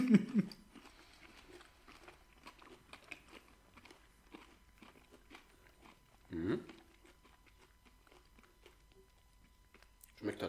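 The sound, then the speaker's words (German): Someone bites into a chocolate bar with pretzel pieces and chews, with soft, irregular crunching and mouth sounds. Brief voice-like bursts appear near the start and in the middle. “guck mal, wenn ich das Lade abbeiße, steht da nur noch Joko”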